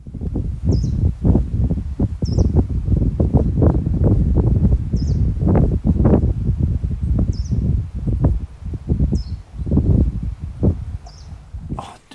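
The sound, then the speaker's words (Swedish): Greenish warbler song: short, high-pitched notes repeated roughly every second or so, fairly faint beneath heavy, rumbling wind and rustling noise. “Men det är nog ganska troligt att det, att det är samma fågel. Ska vi, vill ni lyssna på den också?”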